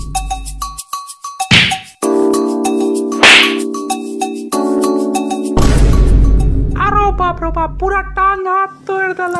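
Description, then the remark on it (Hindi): A few sharp, heavy thwacks of bamboo stick (lathi) blows beating a boy over stolen mangoes land over a sustained ringing drone, followed near the end by high, wavering vocal-like cries. “हमार धक्का लाठी बरसा दे सार के करिया के मुंह कान फोड़ फेर दे”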